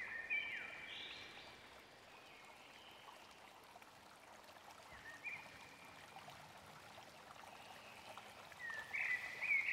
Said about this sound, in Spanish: A lo lejos observas un arroyo, un arroyo con agua. Y te das cuenta que el agua va fluyendo poco a poco. Que fluye todo.